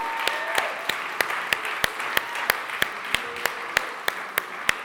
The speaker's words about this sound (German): Und wenn wir das glauben und feiern, lasst uns doch noch einmal einen Applaus geben und ihn loben und sagen, danke Jesus, du bist auferstanden.